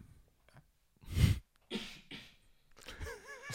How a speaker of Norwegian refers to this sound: Produsenten som hosta.